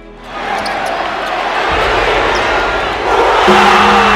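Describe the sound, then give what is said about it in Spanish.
A basketball arena crowd at the Pachín arena in Ponce roars loudly and steadily for about four seconds, a dense wall of cheering and shouting that swells even louder near the end. “vivimos para escucharlo hacer el pachín rugir.”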